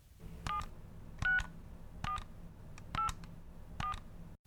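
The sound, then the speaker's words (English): Five touch-tone telephone keypad beeps pressed one after another at a steady pace, spelling the last name Smith in a company's computer-controlled phone directory, each a short, clear dual-tone chirp, with no talking. “Using the keys on the telephone, spell out the person's last name.”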